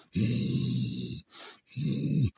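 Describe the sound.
A person imitates a saber-toothed tiger's growl: two long, rough, low rumbling snarls with a hissing intake of breath between them, fairly loud, no other talk.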